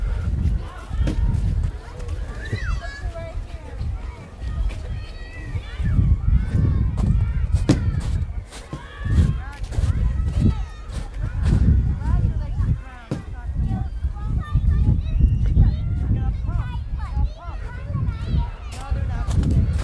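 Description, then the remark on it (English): A crowd of young children chattering and calling out together at a pre-kindergarten school at letting-out time, a lively overlapping babble with high squeals, along with footsteps and general outdoor bustle. “I thought I'd just give you a flavour of what it sounds like because I can hear them now as I approach the pre kindergarten school. It's letting out time.”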